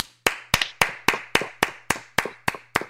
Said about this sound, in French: Puis, ce gars-là, il a tout donné, là, tu sais, il a vraiment essayé fort, de euh, on devrait lui donner une bonne main d'applaudissement.